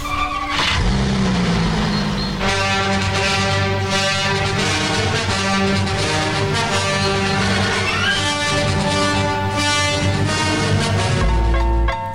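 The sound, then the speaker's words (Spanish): A father's car being remotely started in a 2011 Volkswagen TV commercial: the engine starts up and settles into a loud, steady running hum with rising revs, sustained throughout with no one talking. “intentando sin éxito hacer uso de sus poderes para mover objetos, hasta que finalmente logra activar el carro de su padre.”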